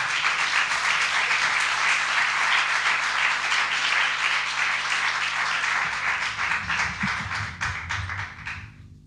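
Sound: audience applause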